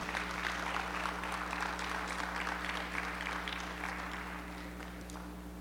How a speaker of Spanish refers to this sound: ¿Pueden aplaudir al Señor todavía o, o ya se están muy muy regañados.